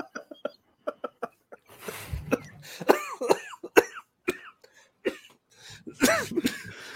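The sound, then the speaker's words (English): A person coughs repeatedly, a series of harsh, raspy bursts and throat-clearing hacks in an uneven rhythm, preceded by a few soft clicks. “made me start coughing.”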